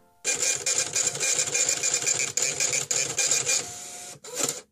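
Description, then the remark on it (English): A printer runs steadily for about four seconds, its mechanical whirring and rapid ratcheting feeding a page through, then stops briefly before one last short burst. No voices. “Let's check the printout.”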